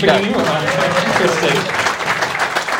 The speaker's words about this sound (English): So, you know, round of applause to everyone in the rooms. I really appreciate, you know, all the support and, uh, and everything we've had this season.